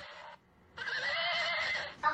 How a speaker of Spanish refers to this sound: ¿Un caballo? Sí, date la vuelta.